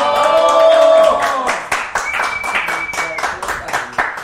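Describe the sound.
A burst of audience applause: a tonal, voice-like swell opens the moment, then dense, steady clapping from many hands carries on loudly for several seconds.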